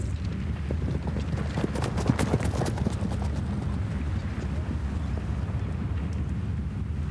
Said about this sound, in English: One warm day in the spring, gendarmes raided our village. One of them threw me on his horse and galloped off with me on its back.